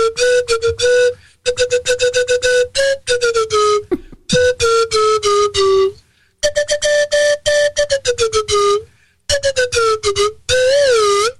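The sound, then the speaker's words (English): A medley of loud slide whistle tunes played in several bursts with brief pauses, mostly holding a steady mid pitch with small dips and glides, ending in a wobbly, warbling slide. No voices are heard. “Okay, well, I'll play a medley of my famous yeah. slide whistle tunes.”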